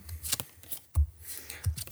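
Crisp papery swipes and slides as two cards are drawn from a deck during a card game, a couple of quick brushing strokes with soft thumps between them, no voices.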